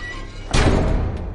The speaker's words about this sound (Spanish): Avanza hacia una puerta metálica. Pasa una tarjeta por un lector. Mete la llave en una cerradura y gira un pomo.